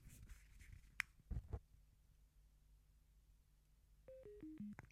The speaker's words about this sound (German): Und ihr hört, Ne? das ist also umgedrehte Klangfolge. Und damit ist der Kopfhörer wieder aus.